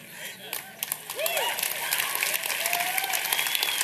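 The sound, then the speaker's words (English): A crowd claps and applauds steadily in a dense, continuous patter, with a few scattered whoops and cheers rising above the clapping. “I'm just emotional because I know that that's not just an applause, but that's your heart.”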